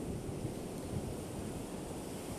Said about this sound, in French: Vous entendez euh, la mer. Le soleil est magnifique. Il y a juste un petit peu de vent, mais très peu.